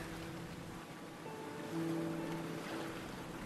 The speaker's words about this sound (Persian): این صدای دریای خزره